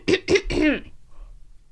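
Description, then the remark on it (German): A person clears their throat: two short, sharp rasping bursts followed by a longer gravelly rumble, then quiet. “Man muss sich auch manchmal räuspern.”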